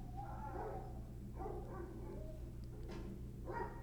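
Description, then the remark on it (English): A dog barks a few times, the short bursts coming irregularly over a steady low hum, with no one speaking. “I have many dogs around me two in the backyard, one above me, it's wild.”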